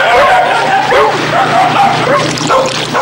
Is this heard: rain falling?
no